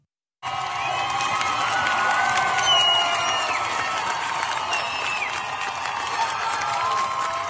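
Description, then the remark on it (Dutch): A large crowd of women cheering, whooping and shouting together at a protest in Iran as they throw their headscarves into a fire, a dense, continuous roar with rising individual cries, loud throughout. “ja, we horen eh, vrouwen joelen en schreeuwen. terwijl ze hun uh, hoofddoeken eh, in het vuur gooien,”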